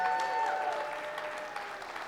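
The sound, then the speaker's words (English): A church audience applauds their campus pastor from Ogallala steadily for about two seconds, a dense wash of clapping with scattered cheers and whoops riding on top, holding at a fairly even volume throughout. “Give it up for him, by the way.”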